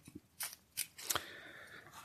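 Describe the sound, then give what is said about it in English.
Playing cards handled for a game of higher or lower: three crisp, papery snaps in quick succession, then a short sliding rustle as the deck is cut. Quiet, with no one talking. “So gonna cut the cards.”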